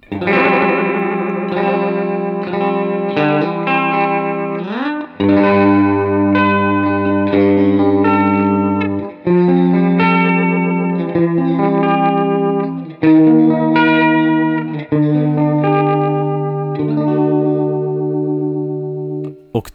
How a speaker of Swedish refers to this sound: korusgrejen försvann och er, ersattes lite av en lite mer vibro, alltså tremolokänsla nästan